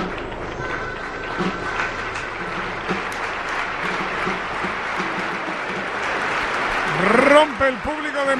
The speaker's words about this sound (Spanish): Y ahora se va a guardar ese minuto de silencio después de la ovación, después de los aplausos Ahora el respeto por parte de los seguidores de Valencia, Real Madrid y de los futbolistas de ambos equipos.